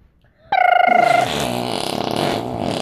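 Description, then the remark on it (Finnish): A loud fart bursts out suddenly, starting as a squeaky, high tone and then breaking into a long, raspy, sputtering buzz that lasts a couple of seconds. “Näihin pieruihin ja tunnelmiin täältä tähän.”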